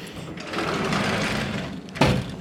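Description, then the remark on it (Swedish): A small motorcycle engine is started on Bali and runs with a steady, buzzing whir, then gives a sharper, louder rev near the end. “Okej, nu är det någon som eh, eh startar sin eh, motorcykel.”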